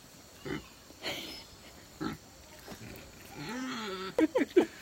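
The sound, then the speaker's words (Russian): A pig grunts in short, scattered bursts, then gives a drawn-out, wavering squeal followed by three quick, loud grunts, with no talking. “Музыкальный свин.”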